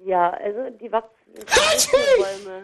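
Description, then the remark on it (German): A man speaks briefly, then a voice imitates a loud sneeze: a breathy build-up bursting into a sharp, noisy 'achoo' that trails off. “Wie findest du mich eigentlich so als. als äh, Nies Imitator”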